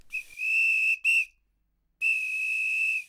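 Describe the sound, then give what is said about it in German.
A shepherd's shrill whistle signal to a herding dog working sheep over a long distance: a sustained high note with a short break and a brief blip, then a pause of silence before a second long, steady blast. Loud, clear and alone. “Sie müssen aber auch über weite Distanz auf ihren Menschen reagieren, der über Pfiffe dem Hund bestimmte Signale gibt.”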